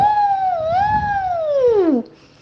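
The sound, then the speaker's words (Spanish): A voice imitates a wind-like howl: one long, loud "oooh" that wavers, then slides steadily downward in pitch for about two seconds before cutting off into near silence. “Más alto que vos y yo juntos, y sucio, estaba lleno de barro y de hojas secas, y aullaba, ¡Uh! como el viento, ¡Uh!”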